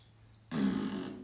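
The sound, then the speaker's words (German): A single loud, buzzing raspberry-like burst begins abruptly and sustains for about a second, a voice imitating a fart with no speech around it. “Jetzt machst du Furzgeräusche.”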